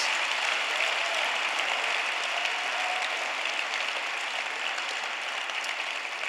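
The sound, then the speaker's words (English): Sustained applause from a crowd, a dense, steady wash of many hands clapping at an even loudness for several seconds with no voices standing out. “Clap for lay pastors.”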